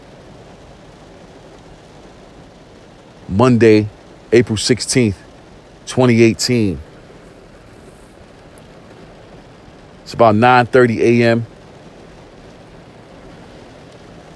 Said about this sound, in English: And this rain is coming down. It's been raining since 10 p.m. last night. It's going to continue to rain all day today, probably till 6, 7 p.m. tonight.